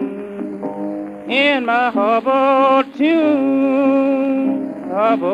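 An old blues recording plays: a singing voice with sliding, bending notes over steady low accompaniment, loud and close, held lines broken by short pauses.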